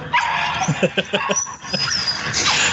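A dog whimpers, letting out a rapid series of short, high-pitched whines and yips, with a thin whistling whine drawn out over a steady background hiss.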